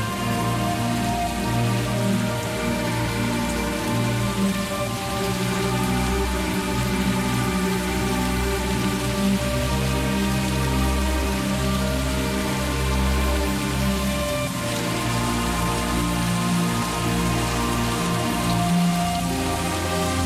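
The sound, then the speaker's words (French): Steady rain patters on a tent, directly overhead, a dense, unbroken drumming of drops that stays even throughout, with no voices and no letup. “le son de la pluie se rapprochait, jusqu'à ce qu'il arrive juste au-dessus de la tente.”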